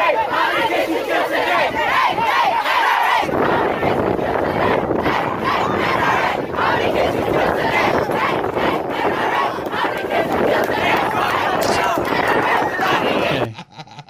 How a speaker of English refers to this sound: But uh, there were kids uh, out front of the Trump International Hotel in Manhattan, and they were lovingly chanting.